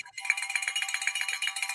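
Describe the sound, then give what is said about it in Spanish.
A small handbell, the "bell of fortune", rung rapidly and steadily to mark a donation, producing a bright, high-pitched jangling that pulses in a quick even rhythm for almost two seconds, with no voices over it. “vuelve y saca la campana de la fortuna y suena la caloparra!”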